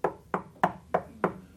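Five firm knocks land in a slow, even rhythm, about a third of a second apart, clear with no voices around them, like someone rapping on a wooden door.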